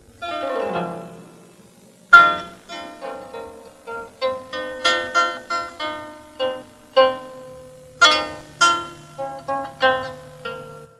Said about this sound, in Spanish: Fui rápidamente a Ortelli compré la tabla de inodoro y aquí la lira de asiento u que suena así.